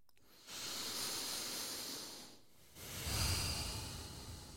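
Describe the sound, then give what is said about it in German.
Two slow, deliberate breaths drawn through the nose while smiling, each a soft, airy hiss, with a brief pause between them and no talking. “Lass uns mal ganz kurz lächeln und dabei bewusst atmen.”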